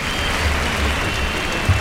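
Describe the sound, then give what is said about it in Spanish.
The bullring crowd at the Real Maestranza gives the matador Morante an ovation after he kills his first Juan Pedro bull with the verduguillo: a dense, steady wash of clapping from many hands that holds evenly throughout, with no voices standing out above it. “y ahora el público sí le da una ovación a Morante...”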